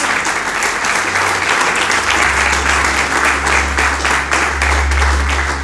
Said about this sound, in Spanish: ¿Alguien puede darle un fuerte aplauso a nuestro Dios?